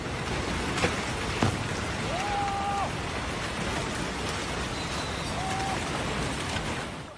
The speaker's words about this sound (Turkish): Japonya'da şiddetli yağmur etkili. Başkent Tokyo'nun batısında kaplıcalarıyla ünlü Atami kasabasında ise yağış toprak kaymasına neden oldu.